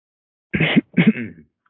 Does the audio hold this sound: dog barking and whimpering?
no